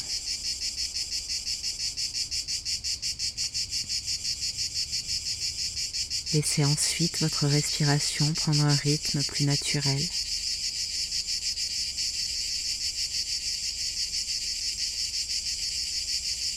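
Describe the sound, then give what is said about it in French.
A steady, high-pitched chorus of cicadas chirps and buzzes without pause, fairly loud and even throughout, with a calm voice speaking briefly over it in the middle. “votre corps et votre esprit connectés au bercement des cigales.”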